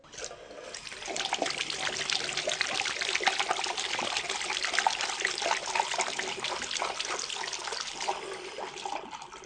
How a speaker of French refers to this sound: C'était le son de l'eau quand on se lave les mains avant d'aller à la cantine.